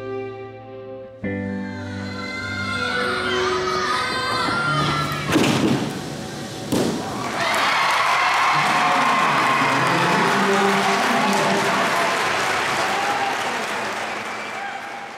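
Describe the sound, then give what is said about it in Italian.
A large arena crowd cheers and applauds loudly during Simone's gymnastics routine, first shown to the public at the 2021 US Championships in Indianapolis, with feet, hands, springboard and a couple of heavy landing thuds cutting through before the applause swells into a sustained roar. “Questi invece sono i suoni dell'esercizio di Simone quando per la prima volta l'ha mostrato al pubblico, Campionati americani del 2021 a Indianapolis.”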